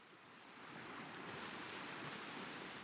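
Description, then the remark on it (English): Steady roar of sea waves washing onto a beach, a broad rushing surf that swells slightly louder after the first half second and then holds constant, with no voices. “Cytherea descends the steps onto the beach and walks along by the sea.”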